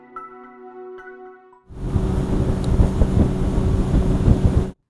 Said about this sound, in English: A brisk boat ride on a fall day on Tellico Lake in Loudon County.